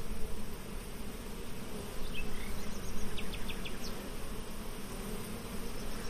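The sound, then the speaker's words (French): A steady, dense hum of many honeybees buzzing near their hive, a continuous droning swarm sound with a few brief higher chirps flickering over it, no voices present. “Moi, j'ai des abeilles qui sont assez douces quand même. Le son est pas le même quand elles sont agressives.”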